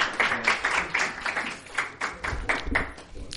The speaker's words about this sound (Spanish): Un aplauso para él. Muchas gracias, Eduardo.